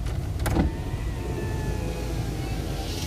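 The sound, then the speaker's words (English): A car's electric window whirs along for about three seconds: a steady, low motor hum with a faint rising whine, opening with a brief clunk as it starts moving. “the window there.”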